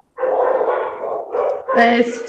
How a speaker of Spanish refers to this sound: son los perritos de mis vecinos. Ah, los perros de los vecinos.